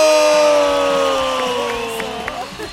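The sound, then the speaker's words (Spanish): A radio show audience cheers and applauds loudly to welcome a performer, with sustained whoops and shouts riding over a dense wash of clapping that gradually fades toward the end. “Un aplauso para”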